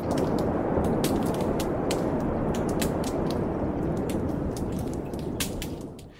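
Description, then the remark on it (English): An underwater soundscape of a dying coral reef off the coast of Fiji, recorded by microphones left in the field: a steady, muffled hiss broken by scattered sharp clicks and crackles, fairly sparse and irregular, with no voices, fading slightly at the end. “And here's the dying coral reef.”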